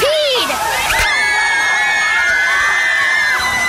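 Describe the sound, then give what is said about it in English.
A crowd of kids and neighbors shouting and screaming together in a swimming pool in sustained, high-pitched cries, loud, with faint splashing of water underneath. “It's the perfect day in the pool with the kids and neighbors when suddenly disaster strikes.”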